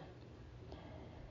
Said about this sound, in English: What you hear there is just a little tinkering of the of the fan going, just circulating a little air.